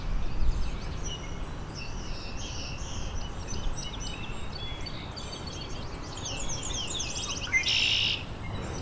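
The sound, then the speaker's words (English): A red-winged blackbird call, a harsh, buzzy trill near the end, rises over a steady chorus of high chirping birdsong and a low background rumble. No one speaks. “Red-winged Blackbird.”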